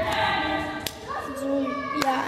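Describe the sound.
A child claps their hands a few times, three sharp, irregularly spaced smacks with pauses between them, while voices murmur and hum underneath.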